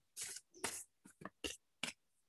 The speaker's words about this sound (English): And I'm just going to shuffle the cards now.